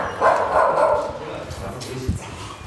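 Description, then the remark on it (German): A neighbour's dog barks and yips in a few short, excited bursts at a coworking studio, with faint human voices in the background. “Der Nachbar geht gerade, ich streichle noch dessen Hund”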